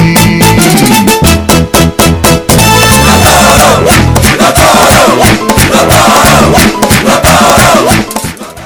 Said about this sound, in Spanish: Por lo tanto, se entiende ese coro de liceístas y escogidista.